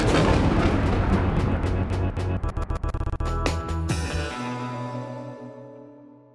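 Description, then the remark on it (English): A loud thunderclap with sharp crackling bursts, then a deep rumble that rolls on and slowly fades away. No voices. “So I had a CD player, I had my headphones on, but the problem with that was every time the thunder would sound, my CD would skip.”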